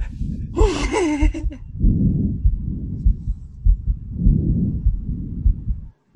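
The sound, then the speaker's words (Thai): Muffled normal lung breath sounds through a stethoscope, several slow cycles where each louder inhale whooshes into a softer exhale, with dull low thumps pulsing underneath and a brief higher-pitched sound near the start. “เสียงที่ดังกว่าเป็นตอนเข้าแล้วเสียงที่เบากว่าเป็นตอนออก”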